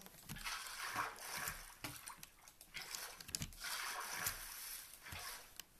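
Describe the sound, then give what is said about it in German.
Water splashing and sloshing in several broad, hissy bursts, like a bucket being dipped and filled, as a player collects water in a video game, at moderate loudness with no voices. “Ja, kurz mal Wasser mitnehmen.”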